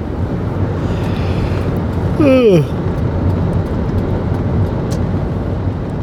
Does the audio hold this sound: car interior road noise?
yes